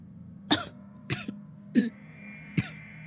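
A doctor in a hospital psychiatric outpatient clinic gives a few light coughs and throat-clearing sounds, four short bursts spaced unevenly over about three seconds, soft and husky with no talking.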